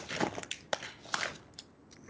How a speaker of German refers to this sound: Moment, ich hole mir noch schnell was zu knabbern. Ja. Es gibt so einen Erbsen. Ich habe Knuspererbsen. Crunchy Peas.